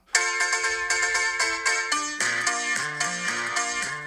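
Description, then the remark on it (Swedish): A piano intro played very hard and somewhat stressed during a studio recording take, with bright repeated chords in a steady rhythm and lower bass notes joining partway through, loud, with no voices. “han bara satte sig vid pianot och liksom skulle spela in eh, introt”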